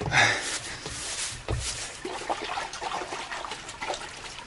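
Water splashes and trickles steadily into dishes, with brief louder pours near the start and a gentle ongoing dribble afterward, moderately quiet.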